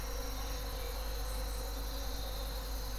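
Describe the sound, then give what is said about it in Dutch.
Thousands of bees flying out of a beehive toward a beach buzz in a dense, steady drone, continuously and evenly throughout, with no pauses and no voices. “uitgevlogen. En die vliegen naar het strand en landen op het strand. En op het strand aangekomen en geland veranderden alle bijen”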